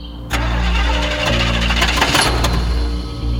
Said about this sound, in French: la voiture de Sherry Joe ne démarre pas.